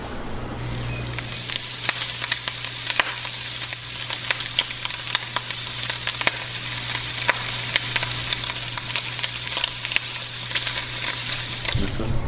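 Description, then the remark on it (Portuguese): Bacon frying in a pan to start a Drugs Burger recipe with cheddar and caramelized onion, a steady crackling sizzle with sharp little pops scattered throughout, fairly loud, under a low constant hum, with no one talking. “Então galera, para começar nossa receita, nós vamos começar fritando bacon.”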